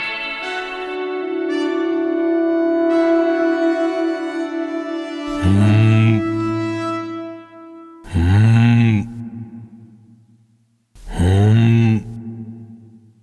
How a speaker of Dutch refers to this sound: Dit is het geluid dat een mannetjesroerdomp maakt om zijn vrouwtje te imponeren.